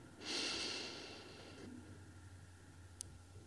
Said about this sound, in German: Und wir atmen nochmal tief ein.